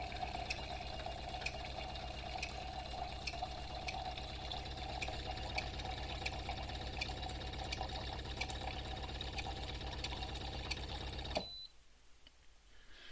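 Hot water pours steadily from an appliance for about eleven seconds, a dense rushing, gurgling stream with faint mechanical rattling, then cuts off abruptly as the process aborts, leaving quiet. A brief high beep sounds near the end.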